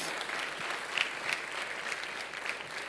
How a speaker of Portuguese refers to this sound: Podemos aplaudir ao Senhor Jesus, daquele que é o pastor dos pastores.